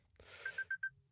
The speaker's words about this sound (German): Doch, das ist der Wecker, dass ich irgendwas machen muss wahrscheinlich.